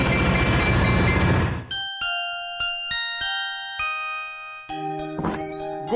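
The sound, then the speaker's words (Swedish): A train departing from track two of a station rumbles loudly for a moment, then gives way to a series of ringing, bell-like chime strikes before more mechanical rail noise and clatter return. “Tåget far nu”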